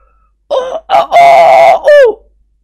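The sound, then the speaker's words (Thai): A voice imitates a rooster's crow, passed off as a duck crowing: two short rising notes, one long loud sustained note, then a falling tail, all in one forceful cock-a-doodle-doo, louder than the one before, with no other talking. “เจ้าแห้วโกงคอขันอีกเสียงดังขึ้นกว่าเก่า”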